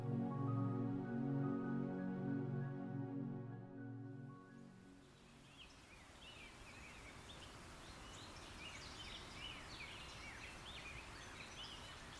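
Birds chirp and twitter in quick, scattered bursts over a steady rustling, leafy breeze, after a short sustained tonal passage fades out at the start.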